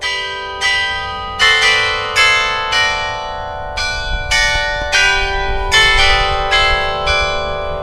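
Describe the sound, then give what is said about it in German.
A set of bells in Norden, East Frisia, Germany, rings out a slow melody over the market square, each struck tone sharp at onset and then ringing on, overlapping with the next, clear and fairly loud outdoors with no voices. “Die Melodie schallt ob die Glockenton, die ob dem Marktplatz steigt.”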